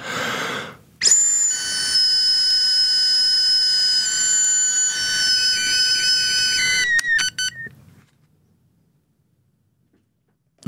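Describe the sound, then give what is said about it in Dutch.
A breathalyzer sounds a steady electronic tone for about six seconds while someone blows into it, the breathy blowing noise beneath it, then ends with a few quick beeps before falling silent. No one speaks. “Ik heb hier een eh, alcoholmeter gekregen. Dan is het even wachten tot die opgestart is. En nu blazen maar.”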